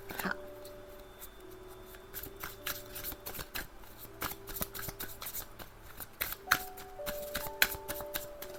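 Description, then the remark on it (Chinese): Tarot cards being shuffled during a tarot reading, with quick papery riffles and crisp flicks repeating unevenly for several seconds. The sound is fairly soft, with no talking over it. “来，一样四张塔牌、战车，哎，青蛙掉了。塔牌、战车、宝剑国王。”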